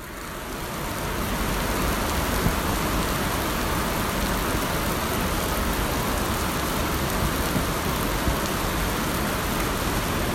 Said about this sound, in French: On est gare Saint-Lazare le mercredi 22 mai à 16h. Et il y a une pluie torrentielle qui s'abat sur la gare. Et on a l'impression d'être en pleine jungle. Comme si d'un coup euh, on était en pleine mousson, en plein milieu de Paris.